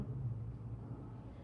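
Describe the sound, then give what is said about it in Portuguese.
A low, steady rumbling of chariot wheels rolling closer, Nakula's chariot bringing Draupadi, continuous and fairly quiet, with no voices over it. “E eles escutam o som do carro de Nakula.”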